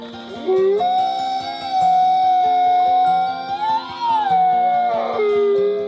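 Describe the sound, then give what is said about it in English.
An arctic wolf howls in one long, drawn-out call that rises, holds steady, swells higher and then slides back down, ringing clearly over soft background music with no talking. “Arctic wolves are really good dads too.”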